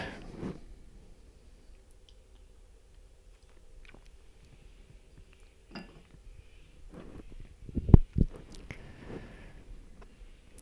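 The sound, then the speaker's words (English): A quiet sip of tea: soft mouth noises and small slurps, then a sharper clink as a cup is set down near the end, with no talking. “Right, I'm just going to have a cup, quick sip of tea.”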